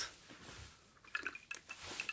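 Ice cubes clack against a glass as someone searches for leftover ice in it, in a quick, irregular series of bright, ringing clinks, about six in all, after a second of soft shuffling. No one speaks.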